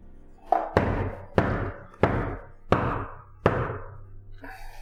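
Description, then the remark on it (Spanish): Five heavy, evenly spaced knocks on a door, each a booming thud with a short resonant decay, loud, then a faint sound as the knocking stops. “Ram no ha terminado de saludar a todos cuando escuchan en la puerta.”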